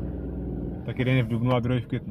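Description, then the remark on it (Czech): A car rumbles past at low volume, its steady engine drone heard alone at first and then continuing beneath a man talking. “Tohle zelená, tady ještě auto projíždí,”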